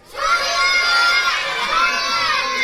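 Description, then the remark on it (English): A crowd of children shout out their answers all at once on a count of three, a loud jumble of overlapping voices that starts abruptly and keeps going steadily for a couple of seconds. “why don't after three just shout out what your favourite episode of Do You Know is?”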